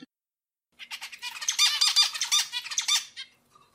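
A rapid, busy run of high, squeaky finch calls lasts a couple of seconds, loud, with many overlapping chirps and no talking.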